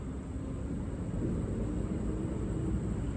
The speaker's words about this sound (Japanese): これはステレオで録音してるんですがどんな風に聞こえるんでしょうね車の音とか川の水が流れる音とかあとは何か聞こえるんでしょうかねあ虫が鳴いてますねあとはちょっと車がうるさいですね